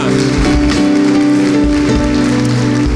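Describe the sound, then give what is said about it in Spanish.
A crowd applauds loudly for the King of Kings (the Lord), a dense, steady wash of clapping that holds for the full three seconds, with sustained musical tones humming underneath. “Gracias al Señor, démosle un aplauso fuerte al Rey de Reyes.”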